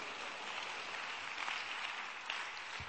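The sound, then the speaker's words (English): An audience claps steadily for about three seconds, a dense, even patter of many hands at fairly strong volume, with no voices heard. “If you don't clap, they're suspect.”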